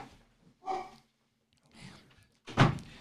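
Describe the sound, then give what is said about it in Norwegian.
A door is shut with a solid thunk near the end so that a dog stays in, preceded by a few soft shuffling and bumping sounds. “Jeg lukker igjen døra, så den bikkja står mm.”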